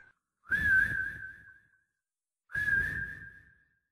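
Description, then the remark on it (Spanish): Two separate human whistles at around four or five in the morning, each a steady, sustained tone lasting about a second with a breathy start, separated by a short silence and heard alone, clear. “Esos silbidos.”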